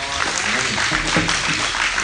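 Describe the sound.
An audience claps steadily, a dense, fairly loud wash of applause that holds throughout, with faint voices mixed in beneath the clapping.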